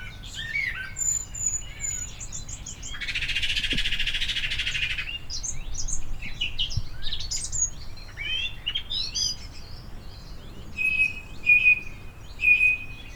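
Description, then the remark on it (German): Birds sing outdoors, with a steady stream of chirps and trills, a brief rushing burst early on, and clear repeated whistled notes near the end. No one speaks. “Und es läuft so schnell ab, dass man oberflächlich meint, man hört, ich höre einen Vogel, ich höre den Vogel, den ich auch schon in meiner Kindheit gehört habe und so weiter.”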